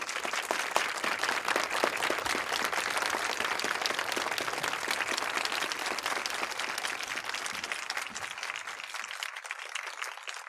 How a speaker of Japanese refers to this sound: あの、皆さん盛大な拍手でお迎えください。お願いします。